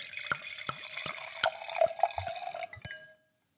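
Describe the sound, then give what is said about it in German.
A small eighth-litre serving of Wachau white wine, 12.5% alcohol, is poured into a large glass: a thin splashing trickle with a rising ringing tone and several sharp clinks, ending abruptly after about three seconds. “So, das waren keine Aufnahmen von einem Toilettenbesuch, sondern tatsächlich. Es war ein kleines Achterl, habe ich hier eigentlich.”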